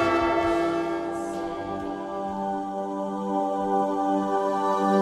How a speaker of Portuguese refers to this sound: Ô sacristão, dá ajuda na igreja aí, toca a corneta pro povo acordar.